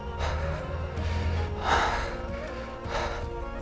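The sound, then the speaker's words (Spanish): A voice imitates shaky, nervous breathing: a few uneven, trembling gasps and breaths, with no words spoken, the middle breath the strongest. “Este, también, si te das cuenta, empiezas como eh, a ponerte nervioso, como que tiembla, te tiembla, o sea, literal, te tiembla la voz, te empieza a temblar tu respiración, tú estabas como...”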